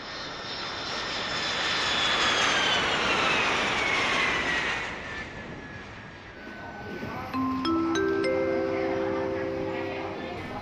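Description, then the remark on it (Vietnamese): A loud jet engine of an airplane that has just landed at Chu Lai airport in Vietnam roars with a high whine that slowly winds down, then settles into a steady hum as a few rising electronic tones ring out near the end. “tôi vừa đáp xuống sân bay Chu Lai để bắt đầu hành trình đến với làng Gò Cỏ”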